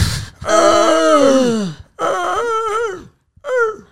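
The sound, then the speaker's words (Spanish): A voice imitates a zombie-like scream in three loud, drawn-out wailing groans, each bending in pitch, the last one short, with brief pauses between them and no talking. “La foca zombie.”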